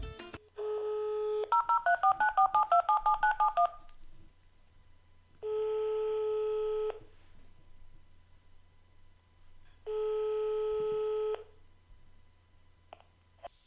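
A phone line's steady dial tone with a quick run of keypad beeps as a number is dialed to call a cinema, followed by two long ringing tones separated by pauses, clear and with no talking.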